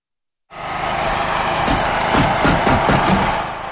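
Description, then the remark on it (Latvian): The engine of a specially equipped car runs steadily at idle after a brief silence at a mobile care team's base in Skrudaliena, Latvia, a continuous low rumble with faint mechanical rattles and no voices. “Tieši no šejienes speciāli aprīkotā mašīnā ikdienas izbrauc mobilā brigāde triju cilvēku sastāvā lai apciemotu vientuļos sirmgalvis un cilvēkus ar īpašām vajadzībām”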